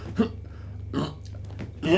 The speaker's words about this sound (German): Ein Schluck Classic Mineralwasser aus einer Glasflasche ist schlimmer als aus einer Plastikflasche. Aus einer Glasflasche und ich rülps viermal, aber diese Rülps halt diese, diese erbärmlichen so.